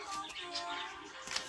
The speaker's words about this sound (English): Uh, my birds, they get really excited whenever I'm reading.